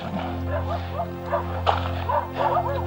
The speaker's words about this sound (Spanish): Los sonidos de la corrida y los perros que están ladrando desde cercanías de la ruta han tomado ya ubicación, parte de la patrulla que integra el control de esta zona a varios kilómetros de distancia del acceso a la población de Ayacucho.